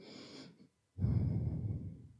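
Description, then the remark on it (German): Two deep breaths drawn in one after the other as a breathing demonstration, a short inhale, a brief pause, then a longer, louder, airy second breath, with no talking. “ach, ich kann es jetzt schwer vormachen vielleicht, aber ihr atmet ganz tief ein. Der, der, der Key ist, dass ihr ähm, die zweite Atmung, Einatmung, kurz nach der ersten macht.”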